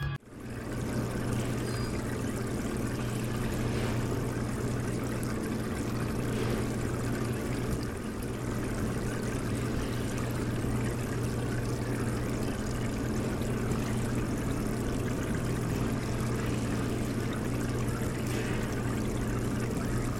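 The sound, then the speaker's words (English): An aquarium pump runs steadily, a low electric hum beneath constant bubbling, trickling water. The sound stays even and unbroken throughout, with no voices. “For more on this world ending story, we now go live to the sound of an aquarium pump”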